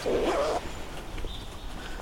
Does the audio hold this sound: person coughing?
no